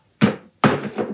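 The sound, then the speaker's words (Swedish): A glass is set down on a table two or three times in quick succession, each contact a fairly loud knock that rings briefly before fading, with no talking. “Ja, och att det inte låter när du ställer ner ett glas.”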